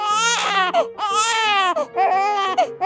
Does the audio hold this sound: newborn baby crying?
yes